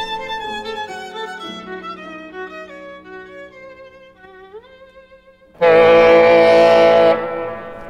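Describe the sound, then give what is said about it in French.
A ship's horn sounds as the ship prepares to set sail: layered, sustained tones that slide upward in pitch, then one loud, brassy blast lasting over a second before fading. No one speaks. “Mais entendez-vous le méhen qui s'apprête à appareiller”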